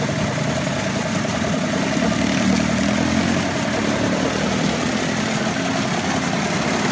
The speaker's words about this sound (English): but the motor there turns on right by the side of the road. Brilliant.